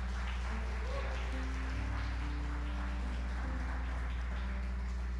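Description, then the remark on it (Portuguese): A church audience claps steadily for the Lord throughout, a dense, continuous crackle of many hands, with low sustained keyboard-like tones droning underneath. “Aplaude o Senhor então em nome de Jesus.”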